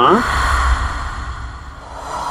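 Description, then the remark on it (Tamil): A person imitates the heavy breathing of a huge seven-to-eight-foot-tall figure drawing breath: one long, forceful, breathy exhale with a brief voiced onset, sustained and loud, with no words. “அந்த மாதிரி ஒரு பெரிய ஒரு ஒரு ஏழு எட்டு அடி உருவம் உள்ள பெரிய ஒரு ஜெய நாலு மூச்சு இழுத்து விட்டா அந்த மாதிரி சத்தம் ஹெவியா இருக்கும் அந்த மாதிரி ஒரு சத்தம்”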